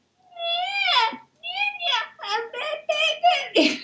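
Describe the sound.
A person's voice mimics a boy's whiny, fussing baby noise: one long drawn-out whine followed by a quick string of shorter, high-pitched whimpering cries, fairly loud.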